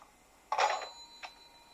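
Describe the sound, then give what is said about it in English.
A rotary phone receiver is dropped onto its cradle with a sharp clunk, setting off a brief metallic bell ring that lingers, followed by a second softer clink; fairly loud, no voices. “And after dropping down the receiver onto the phone, which gives that lovely, satisfying ringing, clunking sound because it's a rotary phone,”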